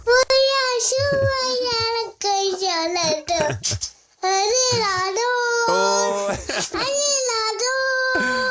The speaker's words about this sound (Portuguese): pelo menino a cantar